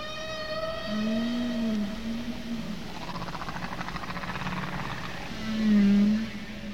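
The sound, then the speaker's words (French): Humpback whale song from humpback whales wintering in Bermuda, in the Atlantic Ocean, picked up by sonar: long, moaning tonal calls that rise and fall, underwater, with a faint rumbling hiss of ocean noise beneath and a louder call near the end. “Il finit par déduire que ce son doit être produit par les baleines à bosse qui passent l'hiver dans les Bermudes.”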